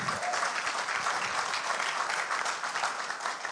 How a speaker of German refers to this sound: Und unsere Wufler sitzen dahin. Gebt ihm einen Applaus. Das sind unsere Teenies in der Gemeinde.